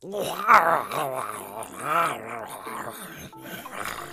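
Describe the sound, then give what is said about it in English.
A human voice imitates the angry roar of a lion-headed creature, a drawn-out growling snarl with wavering pitch that rises and falls for about four seconds. “roars Lionhead, stares at you furiously, but decides to take their anger out on the takeout.”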